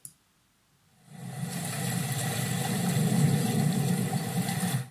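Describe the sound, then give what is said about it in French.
A steady, broad rushing wash of water swells in after a second of quiet and holds loud and unbroken, a relaxation recording of surf on a beach, with no voices. “il y a quand même un truc qui s'appelle La plage le matin. Je vais vous faire écouter.”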